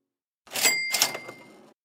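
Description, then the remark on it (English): A bright cash-register cha-ching of a Shopify sale notification rings out with a sharp metallic ding and a brief rattling jingle that fades out, heard alone with no talking. “That's the sound of another sale on Shopify.”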